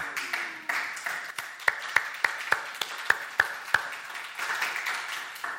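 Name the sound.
audience applause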